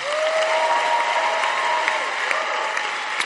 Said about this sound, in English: Give the Lord a powerful hand clap.